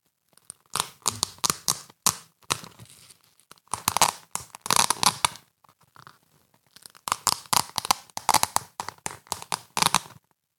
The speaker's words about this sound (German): Und du hast sofort begriffen, um was es da geht. Es ist ein Klettverschluss.